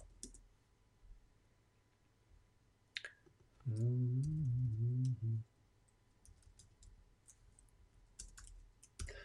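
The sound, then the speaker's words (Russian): Scattered quiet keyboard clicks tap away at an uneven pace as someone types a search on a computer keyboard, looking up an old video to find its year. Partway through, a short wavering hum-like tone briefly rises over them. “Так, сейчас посмотрим справится у нас поисковичок.”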